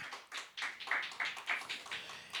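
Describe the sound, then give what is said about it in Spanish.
A group of people at a Spanish-language Christian sermon clap their hands together at the preacher's urging, in a steady, brisk rhythm, about three or four claps per second, with sharp overlapping slaps and no voices. “Dele fuerte las palmas, hermano, que se oiga.”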